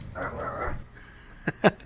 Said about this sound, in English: just the dog in it, baby. Man, um, the dogs uh, are excited.